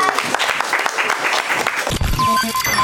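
An audience breaks into dense, steady applause for a participant, many hands clapping at once for about two seconds before the clapping gives way to a brief burst of other sound.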